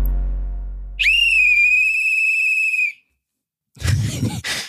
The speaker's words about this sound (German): Das war ähm, Trillerpfeife-Test. Wir testen auf Sound, Geräusch, Ton und Lautstärke.